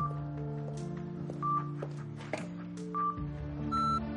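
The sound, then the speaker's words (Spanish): A landline telephone at home gives a few short electronic beeps, spaced well apart, over a steady low tonal hum in the background. “Se gira y mira extrañada al teléfono, que emite un pitido.”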